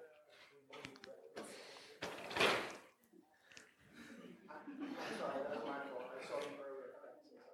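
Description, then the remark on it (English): A door is opened and shut as someone walks outside, with one loud thump partway through, while people murmur and talk in the background before and after. “You wanna you wanna open that door for a second?”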